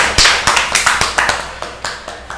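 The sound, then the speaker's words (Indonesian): Hands clap in a quick, fairly steady run of about a dozen sharp, bright claps over a couple of seconds. The clapping is loud and stands alone with no voices. “Tepuk tangan.”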